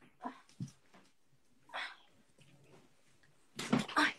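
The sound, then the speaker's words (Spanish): An angry dog makes a few short, agitated whimpering vocalizations, scattered with pauses and ending in a louder, more insistent burst, with no talking. “mi perro cabreado. No le ha gustado, no le ha gustado lo de”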